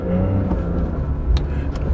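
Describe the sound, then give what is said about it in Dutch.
A Porsche 911 Dakar's engine roars steadily, a deep throaty rumble that seems to build as the car accelerates, with no voices over it. “Er komen 2500 exemplaren van de Porsche 911 Dakar.”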